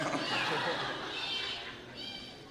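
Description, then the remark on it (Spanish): A boy imitates an eagle's cry with a high, shrill, drawn-out screech that wavers in pitch, followed by a shorter, thinner squeal at the end. “Sabes si así suenan las águilas, ¿Alguien sabe hacer como águila?”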